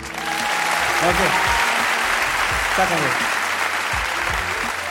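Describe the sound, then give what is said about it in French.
A crowd tries clapping all together in a dense, steady wash of applause that holds for the full five seconds, while a voice speaks over the clapping. “Ah, le frisson de, mauvais applaudissements.”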